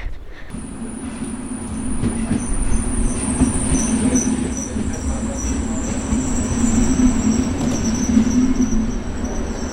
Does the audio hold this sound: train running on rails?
yes